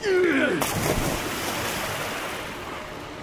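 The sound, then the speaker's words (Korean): A sudden heavy splash breaks in, followed by a loud, steady rush of churning sea waves that continues and slowly eases toward the end. “바다가 뛰노는 것이 곧 그친지라”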